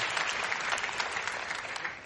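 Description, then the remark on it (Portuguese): A church audience at a baptism service applauds a baptism candidate steadily, a dense wash of many hands clapping at a fairly even level throughout, with no voices standing out above it. “Vamos aplaudir esse irmão.”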